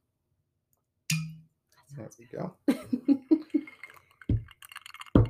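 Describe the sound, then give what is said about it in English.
A single sharp pop and brief hiss as a bottle of lager is opened, followed by a faint glassy clink while a man talks briefly. “Uh, with that, let me go ahead and open my bottle.”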